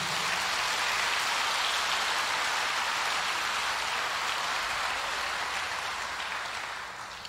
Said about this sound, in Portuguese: Se é para Jesus, pode aplaudir.